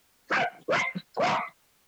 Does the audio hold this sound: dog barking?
yes